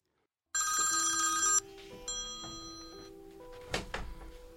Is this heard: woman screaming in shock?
no